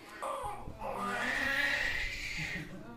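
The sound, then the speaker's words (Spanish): A newborn baby cries in a sustained, strained wail with a rising and falling pitch, fairly loud, continuing for the whole moment without any talking. “El llanto del bebé representa el sueño alcanzado.”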